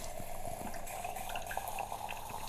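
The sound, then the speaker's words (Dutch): A steady stream of water pours into a large 0.4-litre glass holding instant coffee, a continuous splashing and gurgling that runs for a couple of seconds with no one talking. “Oh, ik weet niet of het te veel was, maar dit is een mega groot glas. 0,4 liter, dus daar kan wel wat water bij.”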